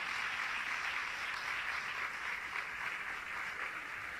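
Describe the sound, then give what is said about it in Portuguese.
An audience applauds the children as they enter, steadily for the whole stretch, a dense, continuous wash of many hands clapping at an even, moderate loudness with no voices standing out. “Vamos aproveitar e aplaudir as nossas crianças que estão tá entrando.”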